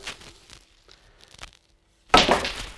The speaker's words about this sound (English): Nicely pots the yellow. It did jingle and jangle a little bit round in the pocket there